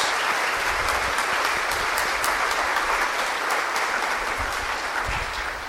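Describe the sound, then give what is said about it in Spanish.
A large audience claps steadily and warmly to welcome children who are joining in receiving the body and blood of Christ, a dense continuous wash of applause at even loudness for several seconds, with no talking over it. “Le damos con alegría y de bienvenida un aplauso a estos niños y niñas.”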